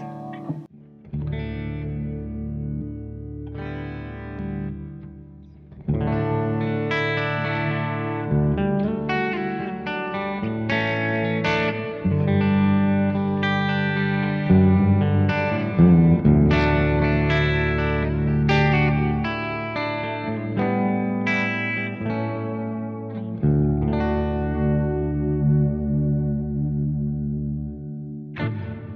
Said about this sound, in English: That's the Arion Stereo chorus. Um, inexpensive, you can do it with other courses as well that have that, you know, stereo outputs basically.